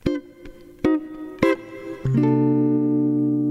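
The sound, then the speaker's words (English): A few separate plucked guitar notes ring out, then a full guitar chord, a thirteen sharp eleven, is strummed and left to sustain clearly on its own, with no voices. “That's that classic chord that, that uh, ends the … band songs”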